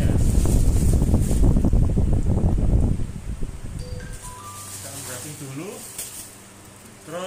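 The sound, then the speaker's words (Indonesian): Loud, busy crackling and rustling of plastic wrap being torn off an educational toy given as a gift to a small child, for about three seconds, then softer handling noises with a voice speaking over them. “pertama kita unwrapping dulu plastik”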